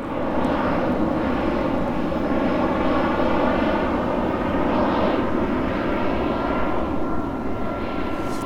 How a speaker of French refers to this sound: Il y a des avions qui passent. Euh, c'est ça, ils passent euh, en atterrissant, ils arrivent euh, par là. Et par contre, quand ils repartent, ils passent au-dessus en ce moment. Il y en a de plus en plus ce dimanche.